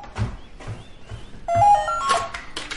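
A few soft thuds, then a telephone rings with a bright, steady tone before a clattering knock as a mother lifts the receiver during the day, with no one speaking.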